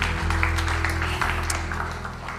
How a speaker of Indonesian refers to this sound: Boleh kita berikan tepuk tangan untuk tim worship.